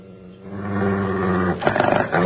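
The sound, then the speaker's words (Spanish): A dog growls low and steadily by a door, the rumbling rising into a rougher, pulsing snarl near the end. “¿Por qué demonios estás gruñendo aquí junto a la puerta?”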